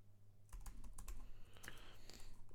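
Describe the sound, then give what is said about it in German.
Rapid, irregular typing on a computer keyboard with sharp clicking keystrokes, fairly quiet, over a steady low hum, no voices. “Sag mir mal schon mal, dann kann ich schon mal anfangen zu tippen, weil ich verschreibe mich wahrscheinlich wieder viel.”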